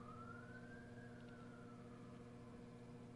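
An emergency siren slowly rises and falls in a long, drawn-out wail over a steady low rumble of engine or traffic noise, with no one speaking.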